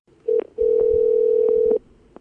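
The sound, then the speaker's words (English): A telephone tone sounds over the line during a phone call to the Hawaii County mayor: a short beep, a brief gap, then one long, steady, loud hum that cuts off cleanly. No one speaks. “I called Hawaii County Mayor Harry Kim on the phone”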